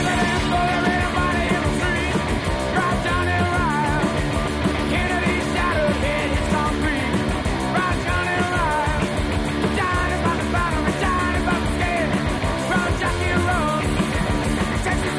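An American punk rock recording plays loudly and without a break: dense, driving band sound with shouted vocals riding over steady, fast-paced instrumentation.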